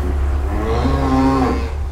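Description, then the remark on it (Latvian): A day-old calf, born that morning in the calving area of a cattle barn, moos once in a drawn-out, wavering call, fairly loud, over a steady low hum of barn noise with no talking. “Jaunākais ir diena vecs teliņš. Tas ir šodien no rīta piedzimis.”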